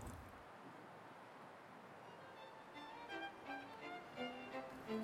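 A steady, soft winter wind blows throughout at a low level, and faint tonal sounds like distant music drift in over it during the second half.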